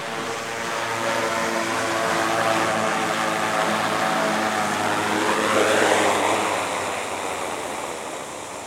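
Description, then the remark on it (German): The firefighting drone of the Zug fire brigade hums with a steady, whirring propeller drone and stacked tonal harmonics, its pitch sweeping as it manoeuvres, swelling louder around the middle, then easing as it lands. No one speaks. “Die Feuerwehrdrohne von Zug ist also wieder am Boden.”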